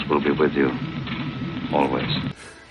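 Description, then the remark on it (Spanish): A pinball machine sound effect, said to come from a Star Wars pinball machine: a quick burst of warbling electronic chirps and tonal beeps over a steady low hum, fairly loud, ending abruptly after a couple of seconds. “Eh, para mí eso debe estar sacado del pinball de, Star Wars, ese sonido.”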